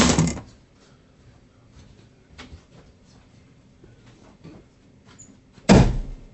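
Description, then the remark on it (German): A door is shut with a heavy thud near the end, preceded by an earlier bump and a few faint knocks and shuffles. “Ich muss auch die Türe zumachen.”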